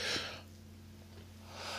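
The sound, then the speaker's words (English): A single quick sneeze bursts out at the start, then fades into a quiet pause before a soft, breathy rush of air near the end. No one speaks. “I sneezed over there.”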